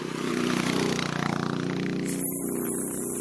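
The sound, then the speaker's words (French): A motorcycle roars, its loud engine droning steadily, swelling briefly before holding at a constant, throaty rumble for a few seconds with no voices. “La moto arrive, cache tes oreilles encore, voilà.”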